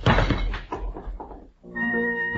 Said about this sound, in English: general just fell out of bed. His name? William Scott Ketchum, Major General, United States Army, retired.